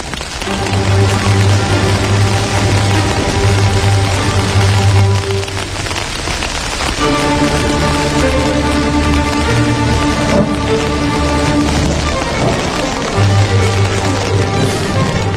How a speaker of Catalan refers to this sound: comença a ploure a bots i a barrals aquí a Territori 17, però ho fa no pas de forma real ni presencial